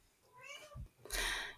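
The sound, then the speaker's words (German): A cat lets out a single drawn-out, wavering meow that ends in a rougher, breathier burst, fairly quiet, with no talking. The cat is Buffy, the speaker's pet cat. “Ähm, also falls ihr jetzt ein Schnurren hört, das ist auf jeden Fall das ist meine Katze Buffy.”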